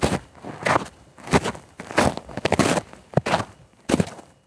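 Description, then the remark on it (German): Shoes crunching through freshly fallen snow in icy cold at an unhurried, steady pace, about seven or eight crisp crunches with brief quiet gaps between them and no voices. “das Knirschen der Schuhe auf frisch gefallenem Schnee in eises Kälte.”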